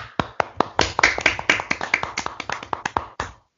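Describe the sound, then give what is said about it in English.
A brief round of applause for Armenia's 1-0 win that topped their UEFA Nations League group: a quick, uneven run of sharp, crisp hand claps lasting a few seconds at steady loudness, then stopping abruptly. No voices. “a round of applause.”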